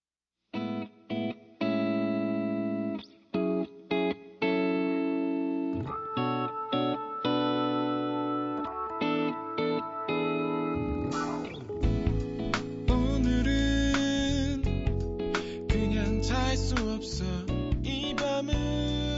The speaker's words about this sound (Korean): 신청곡 소개, 어, 노래 들려드릴게요.